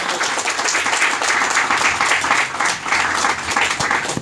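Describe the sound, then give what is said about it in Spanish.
An audience at a morning church service breaks into sustained applause for the Lord, dense overlapping claps at a steady, loud level for several seconds, with faint voices mixed in. “Denle un aplauso al Señor, por favor, esta mañana.”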